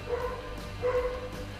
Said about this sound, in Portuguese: Olha a sonoplastia é um cachorro latindo e agora tem um cachorro se revirando.